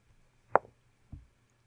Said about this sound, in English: go ahead and give me a roll with one d6 and tell me what number you get.